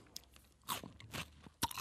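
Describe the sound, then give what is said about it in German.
Crunchy chewing of food, with three loud, bright crunches at uneven intervals and softer mouth noises between them, no talking. “Wenn, Le wenn Leute schmatzen so geil.”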